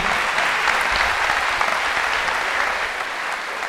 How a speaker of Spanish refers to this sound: Un aplauso para Brigitte.